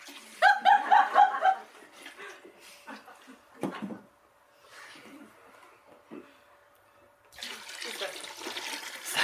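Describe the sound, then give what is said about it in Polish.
Wine pours steadily into a krater near the end, a soft continuous splashing rush, after a brief burst of light laughter and a few scattered quiet noises. “No więc do, do krateru było wlewane i też w sposób, w sposób rytualny wino i rozcieńczane w różnych stosunkach z wodą.”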